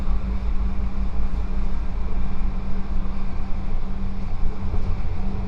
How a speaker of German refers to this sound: Hi, bin unterwegs mit der Straßenbahn in der Plattenbausiedlung.